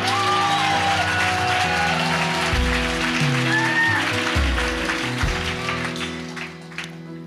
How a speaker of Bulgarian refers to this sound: Ръкопляска, ако вярваш.